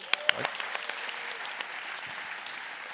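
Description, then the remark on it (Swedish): Applause after a contestant's answer is awarded 10 points: a dense, steady patter of many hands clapping, with a few sharper claps standing out near the start, continuing at an even level for a few seconds. “Applåd!”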